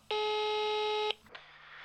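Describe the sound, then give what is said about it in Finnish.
A single loud, steady telephone busy-signal tone from a customer service line whose service points are all busy rings for about a second, then cuts off, leaving faint hiss and a soft rustle. “Kaikki asiakaspalvelupisteemme näyttävät olevan edelleenkin vara...”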